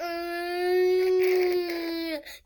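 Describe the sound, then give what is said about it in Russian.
A voice imitates a school lesson signal: one loud, steady, nasal tone held for about two seconds, like a droning buzzer, before it breaks off with a brief falling note. “как вам сообщают, что начался учебный день или начался урок, или закончился?”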